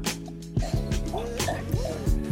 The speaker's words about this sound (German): Mein Hund trinkt gerade, deswegen. ich wollte gerade fragen, wer planscht denn da?